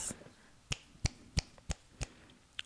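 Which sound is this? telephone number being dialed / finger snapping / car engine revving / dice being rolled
finger snapping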